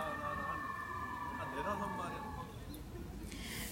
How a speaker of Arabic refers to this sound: لحظه في اسعاف